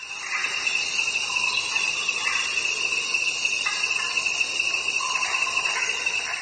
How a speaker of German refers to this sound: Aus den verschiedensten Gebieten dieser Erde hat er schon Tonaufnahmen gesammelt, hier zum Beispiel im tropischen Regenwald im Amazonasbecken.